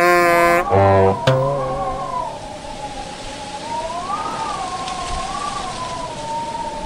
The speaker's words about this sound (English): She only came in the dead of winter, when the nights were long and the rain lashed hard against the window panes.